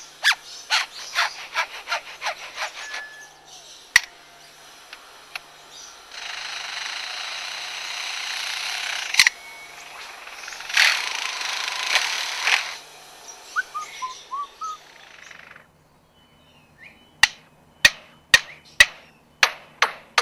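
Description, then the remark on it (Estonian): A lyrebird in Australia mimics construction-site noise: rapid trains of sharp hammer-like clicks, bursts of buzzing drill or jackhammer rattle, and a few loud isolated knocks at the end, with no talking. “Liarbird on, äh, Austraalias elab nagu mingi lind”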